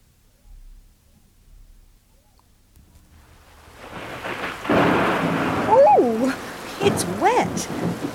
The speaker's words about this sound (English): It's raining. It rains a lot in Darwin too. It rains in December and January and February.